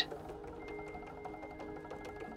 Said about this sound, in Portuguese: Se imagine agora nesse lugar, nessa casa do oleiro. Ouça o som da roda de madeira a girar.